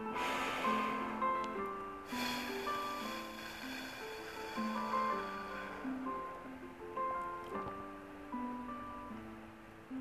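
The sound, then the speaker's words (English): A loud, breathy intake of air through the nose, followed by a long, steady exhale pushed out through narrowed lips as if through a small straw, in a straw-breath breathing exercise, set over soft background music with sustained tones. “it is breathing in through the nose. And you're going to breathe out through your mouth as though you have a small straw in your mouth”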